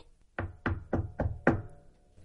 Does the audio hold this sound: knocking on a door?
yes